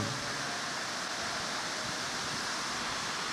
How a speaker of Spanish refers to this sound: Y mire todavía la lluvia que nos bendice, peor.